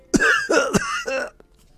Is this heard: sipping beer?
no